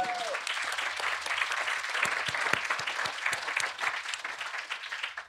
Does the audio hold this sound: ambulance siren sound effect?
no